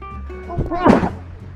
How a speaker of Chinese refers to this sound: Sorry。对，我打喷嚏。Sorry。